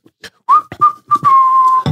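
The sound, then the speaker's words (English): Someone imitates a person whistling: a few short whistled notes, one rising, then a long steady tone that slowly sinks, with a few breathy clicks between notes and no talking. “And I'm like, who's whistling?”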